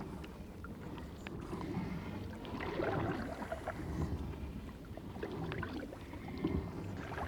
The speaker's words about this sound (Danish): Og det minder mig pludselig om dette her, hvor nemt det er at få sat en båd i gang.